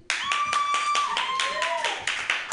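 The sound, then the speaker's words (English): A burst of audience applause, dense rapid clapping at steady loudness for a couple of seconds, with a high whooping cheer rising above it partway through. “Actually, you guys, I, um, I kind of want a round of applause.”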